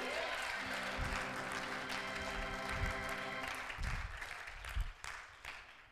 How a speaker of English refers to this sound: Clap your hands if you receive that word.